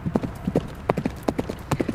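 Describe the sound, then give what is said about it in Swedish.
Horse hooves galloping, a quick run of hollow clip-clop beats in uneven clusters of two and three, clear with nothing else over them. “Och då minsann, då kommer den att livas upp mm. och vilja galoppera ånyo.”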